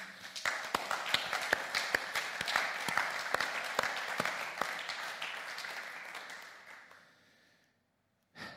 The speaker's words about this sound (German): Komm, lass uns auch wirklich nochmal dem ganzen Leitungsteam und vor allem den Leuten, auch die diese Bühne schon seit Jahren bauen und davor nochmal einen richtigen Applaus geben.